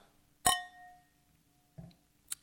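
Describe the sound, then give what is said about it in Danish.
A single bright clink of wine glasses touching in a toast, its ringing tone fading over about a second, followed by a soft thud and a faint tick. “Ja, men øh, skål derude der.”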